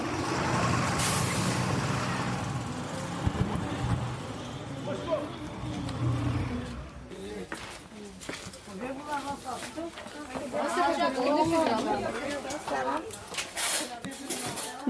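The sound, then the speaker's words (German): A bus comes to a stop on Marktstraße in the centre of Stuttgart with a loud hiss of air brakes and a rumbling engine, followed by busy street noise and people talking as passengers get off. “Daher stiegen wir in der Mitte Stuttgarts auf der Marktstraße gespannt aus dem Bus aus.”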